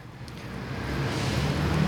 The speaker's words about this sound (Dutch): Al die dikke Duitse auto's, BMW's, Mercedes'en, ook Audi's natuurlijk. Die staan allemaal in de file omdat we... Er zijn zoveel auto's hier onderweg met die goedkope benzine